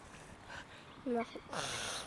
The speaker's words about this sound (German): Die Schwäne zischen. Vielleicht nerven wir sie.